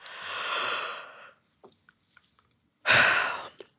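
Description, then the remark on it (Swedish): A long, airy yawn-like exhalation fades out, followed by a quiet pause with small clicks, then a second sharp breathy burst near the end. Fairly loud, with no talking. “Innan man går och sätter sig i det här rummet där man ska bli intervjuad så är det bra att man går iväg en stund till närmsta badrum och faktiskt gäspar lite för gäspningar får en att slappna av.”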